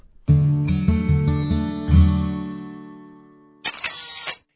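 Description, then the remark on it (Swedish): A short intro jingle: several bright, ringing chords struck in quick succession, swelling and then fading out, followed by a brief burst of noisy, crashing sound to finish. No one speaks. “Nu rullar vi vignetten.”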